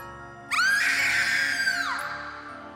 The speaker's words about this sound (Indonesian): Sampai akhirnya Sang kakak menoleh ke arahnya. Sorot matanya tajam dan tiba-tiba dia berteriak dengan keras.